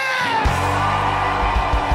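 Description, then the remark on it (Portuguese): A large crowd in Rio de Janeiro shouts and yells together on cue in a loud, sustained roar that fills the space, with overlapping voices and no distinct words. “Então agora grita igual só os cariocas conseguem, solta aquele grito, hein?”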